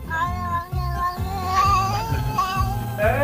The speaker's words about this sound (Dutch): Ja, jouw kat miauwt toch wel eens, hè? Ja, nou, maar niet zo hoor. Niet zo erg als deze op het filmpje.